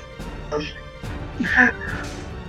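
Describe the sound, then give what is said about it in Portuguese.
A person's voice mimics a ghostly sound, a few wavering, rising and falling hoots and moans over a couple of seconds, moderately loud. “Cara, quando você tentou fazer o som fantasmagórico através do seu sprite, na verdade não saiu pelo sprite, saiu pela sua boca mesmo.”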